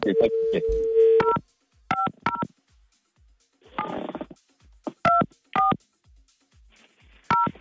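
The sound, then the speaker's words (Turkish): Telephone keypad tones beep out a number to call a caller's mother live on air during a radio broadcast: a steady dual-tone hum first, then a series of short, bright two-note beeps in irregular clusters, with brief muffled noises between them. “İzin olsa şimdi anneni bağlamak istiyorum canlı yayına.”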